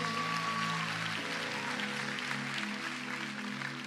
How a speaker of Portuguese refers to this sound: Aleluia. Será que você pode aplaudir Jesus mais uma vez?